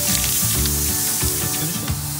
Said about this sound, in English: Let's throw them on the grill. Get the first few sizzling right there. Oh, that sounds good.